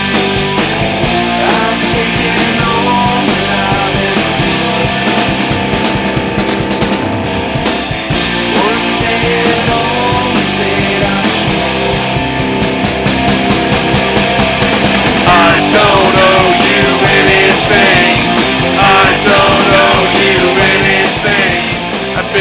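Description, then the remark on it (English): A rock song blasts at high volume throughout, with dense driving instruments and steady pounding drums filling the whole stretch without a break. No one speaks over it. “It's a fucking statement. Uh, and it's what's great about this song.”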